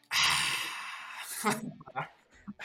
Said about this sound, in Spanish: A ver, espérate, espérate. Déjale doy sorbecito, déjale doy sorbecito, a ver.